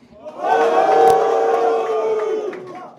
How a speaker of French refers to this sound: Pourquoi il, est, pourquoi il est sifflé Raoul il, y a une, il y a une fanbase de, hate Raoul.